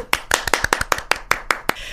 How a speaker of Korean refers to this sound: 그런 고마움을 알고 사연을 주셔서 김동원 씨도 저희 고마워요 네, 네 박수 보내드릴게요.